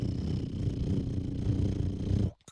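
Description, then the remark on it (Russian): A voice does a steady, rumbling lip-trill imitation of a car engine turning over, fairly loud, holding for about two seconds before cutting off abruptly into near silence. “Это точно так же, как мне потом детям надо будет объяснять, зачем нужна коробка передач и почему эта машина издает звук. Брррр”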